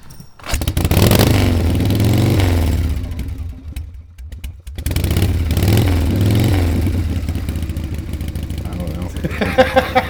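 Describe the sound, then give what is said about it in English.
A chopper motorcycle engine revs hard in repeated rising surges, dips briefly to a low idle, then roars up again with rough, rattling mechanical clatter. “And uh, this dude rides a sketchy fucking chopper.”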